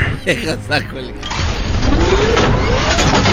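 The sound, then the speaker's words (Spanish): A brief burst of voice, then a trailer truck's engine cranks to life and settles into a loud, steady rumble, its pitch climbing slightly as it keeps running. “No quiero molestarte mucho porque estás muy grande y eres un trailer, pero.”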